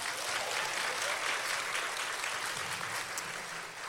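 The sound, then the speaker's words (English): A crowd applauds steadily, a dense wash of many hands clapping at an even level that eases off slightly toward the end. “Y'all clap for Katina.”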